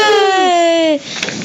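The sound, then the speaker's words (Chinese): During a Chinese read-aloud of a story, a voice imitates the character Dudley's loud, long burp: one drawn-out, strained croak lasting about a second, its pitch wavering slightly downward before it cuts off into near quiet. “哈利想要反驳，但德斯里夫妇的儿子达利正好在此时打了一个又响又长的饱嗝。”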